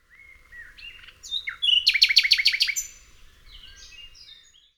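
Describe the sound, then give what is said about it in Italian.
A nightingale sings: varied whistled phrases build into a loud burst of rapid repeated notes, then trail off into softer warbles over a faint low background rumble. “I fantasmi dei compagni morti sul fronte lo accompagnano tutte le notti, mentre la figlia lo viene a trovare nel canto degli usignoli e la moglie nel colore dei lillà.”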